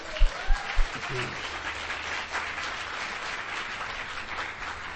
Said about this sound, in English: So let's give them a round of applause for that.